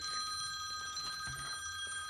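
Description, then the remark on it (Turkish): A telephone rings with a steady, continuous electronic trill, fairly loud, with no voices over it, signalling an incoming call from a listener. “Evet şimdi bir şey, dinleyici telefonu alıyoruz.”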